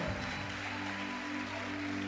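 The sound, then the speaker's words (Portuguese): A church audience claps for Jesus in a dense, steady wash of applause that holds evenly for a couple of seconds, with a sustained keyboard-like tone humming underneath. “Aplauda Jesus!”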